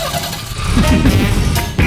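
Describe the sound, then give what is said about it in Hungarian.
A motor engine turns over and catches, settling into a loud rumble with a brief rise in revs before idling on. “Csak kapcsoljuk be, kapcsoljuk be a motorját.”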